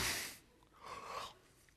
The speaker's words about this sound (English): She yawned.